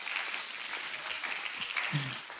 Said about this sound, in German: Applaus mal für die, die das eingesprochen haben übrigens. Mega nice.